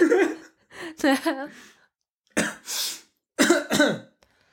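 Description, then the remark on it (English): Someone chokes and coughs hard on swallowed buckwheat tea in several loud, rasping bursts, with strained voiced gasps between them and short pauses as they struggle to clear their throat. “what you choking or? I don't know. Did you choke? Yeah.”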